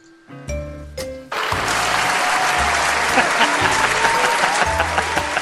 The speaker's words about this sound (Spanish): Ahí están los aplausos para el señor Alfredo, me encantó eso.